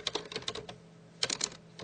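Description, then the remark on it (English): Quick bursts of keyboard typing while searching for 'cheesy gordita crunch': a rapid run of light clicky keystrokes, a brief pause, then another fast flurry of taps, with no one speaking. “I'm gonna look up mm-hmm. cheesy gordita crunch just to see what it technically is.”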